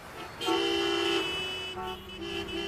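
Car horns honk in a traffic jam: a long, loud blast followed by further overlapping, sustained horn notes over a low rumble of idling traffic.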